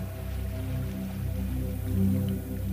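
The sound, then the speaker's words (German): A steady wash of ocean surf rolls on without a break, swelling slightly near the end, with a soft, low musical drone humming beneath it. No one speaks. “Du sitzt gerade in der Morgensonne am Meer, lauscht dem Meeresrauschen,”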